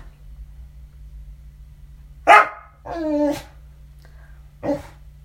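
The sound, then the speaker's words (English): A dog lets out three barks with pauses between them, the middle one drawn out into a whiny, yowling tone, over a steady low background hum. “It's tough shit, dog.”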